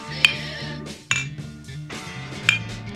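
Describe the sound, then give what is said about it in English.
Glasses clink together three times in a toast, each tap bright and ringing briefly, spaced unevenly over a low, steady background murmur. “Cheers.”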